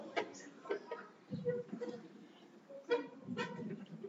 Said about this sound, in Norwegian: Og nå må jeg sette mikrofonen her litt, da.